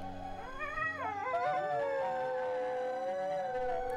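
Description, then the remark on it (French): Several wolves howl together in a sustained chorus, their overlapping voices rising and falling in long gliding tones throughout, with no one speaking. “Lorsque les deux pattes se mirent à chanter à la lune, les loups fredonnèrent une mélodie que leur avait apprise petite fille.”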